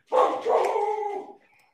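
Nika, a pet dog, barks loudly, two quick barks running together and trailing into a drawn-out, fading yowl, with no voices; she is going nuts because someone is outside.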